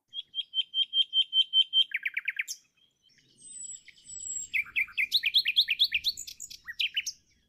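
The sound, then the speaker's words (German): A nightingale sings alone: a fast series of repeated piping notes, a brief buzzy rattle, a pause, then a rich run of rapid, sweeping whistled phrases. “Das erste war eine Amsel, das zweite war eine Nachtigall.”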